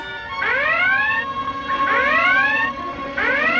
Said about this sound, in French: Faites taire cette maudite sirène